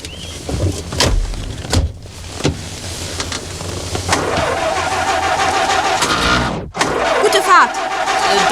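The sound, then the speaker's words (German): A few sharp clunks like car doors shutting as people get in, then the engine of a freshly refuelled car starts up and runs steadily, growing louder as the car pulls away, with a brief dip near the end. “da ist der Wagen. Joe hat ihn aufgetankt und die Zündung noch einmal angesehen”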